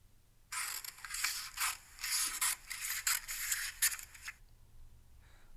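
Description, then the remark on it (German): Scissors snipping through material in a steady series of crisp cuts lasting about four seconds, with a dry rasping texture, followed by quiet; no one speaks. “oh, das müsste die Schere sein, die irgendwas durchschneidet. Das ist absolut korrekt.”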